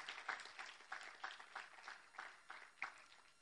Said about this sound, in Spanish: Alguien puede darle un aplauso al Señor por eso. Aleluya. Amén.